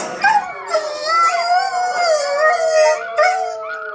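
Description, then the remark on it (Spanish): A small dog howls in a high, wavering voice, its cries sliding up and down with a few sharp yelping breaks, loud for several seconds with no talking. “Este perrito me costó más trabajo. Hasta sentí lástima por él.”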